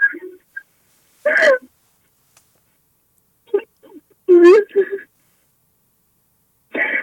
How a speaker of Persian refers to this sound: خب چرا گریه میکنی؟ چی شده